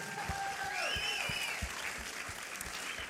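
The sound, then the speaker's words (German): Steady audience applause for the speaker's wife, a dense wash of many hands clapping at an even level for a few seconds, with a few sharper individual claps and some faint cheering or whistles above it. “Und wenn ich dir noch einen Applaus darf anverlangen, einfach meiner Frau einen Applaus geben, das würde mich extrem freuen.”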